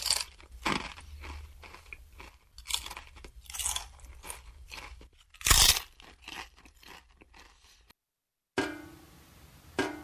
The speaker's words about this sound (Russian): Сочные яблоко.